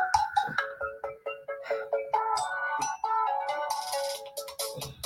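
A new mobile phone's ringtone plays a bright, repeating electronic melody of quick notes for several seconds, fairly loud, with no one talking over it.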